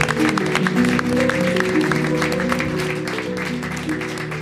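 audience applause

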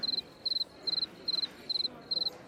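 cricket chirping

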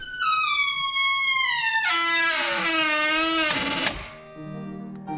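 squeaking door

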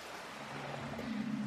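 ocean waves

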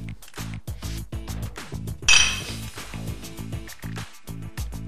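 glasses clinking

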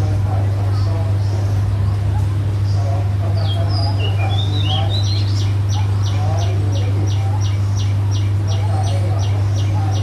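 bird calls

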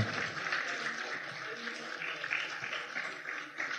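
applause

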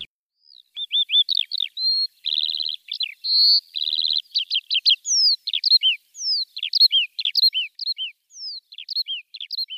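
skylark song

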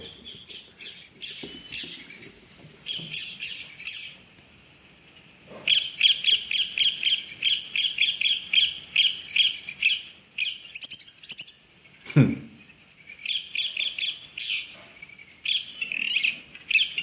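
bird calls

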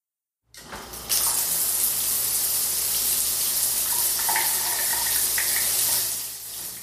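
shower water running

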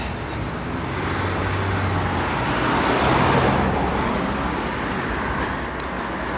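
street traffic

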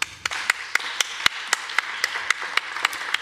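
audience applause

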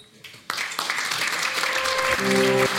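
audience applause

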